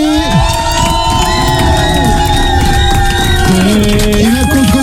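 A loud crowd cheers and shouts continuously, with many voices whooping and yelling at once in a sustained, energetic roar that never lets up.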